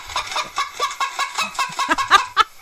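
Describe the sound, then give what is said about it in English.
A chicken sound effect: a chicken clucks in a quick, steady series of short, throaty bursts, clear, with a couple of higher squawky notes near the end and no talking. “Please tell me that you have the chicken sound.”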